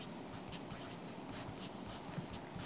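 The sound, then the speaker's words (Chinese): A pen scratches steadily across paper in quick, uneven strokes, a soft papery hiss rising and falling as notes are copied down during a university calculus lecture. No one speaks. “不过抄那么多东西，到底有没有真的记得啊？”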